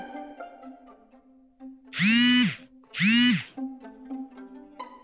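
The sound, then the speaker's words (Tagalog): A cellphone, set off by an alarm set for 11:11, vibrates against a surface in two loud, harsh buzzing pulses, each about half a second long, separated by a short gap, over a steady low hum and faint tones. “Nag-vibrate na nga cellphone mo.”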